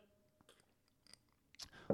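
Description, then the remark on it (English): A quick sip of an old fashioned cocktail: faint lip and mouth clicks, then a short slurping draw and a swallow near the end, all quiet with no talking. “Hold on, quick quick sip.”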